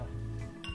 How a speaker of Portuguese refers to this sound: Vamos, vamos brindar. Vamos brindar. Opa, brinda.